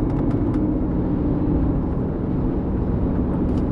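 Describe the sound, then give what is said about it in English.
A semi truck on the highway, moving into the left lane to pass, gives off a loud, steady low rumble of engine and road noise, unbroken for the whole stretch, with no voices. “Um, sorry, a semi wanted to get in the left lane for passing, and I come over just as he hit his blinker.”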